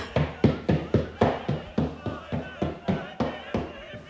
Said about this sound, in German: Hier nochmal fester. Könnt ihr euch jetzt nach vorne klopfen, die Hände mal reiben und euch ein wenig schütteln.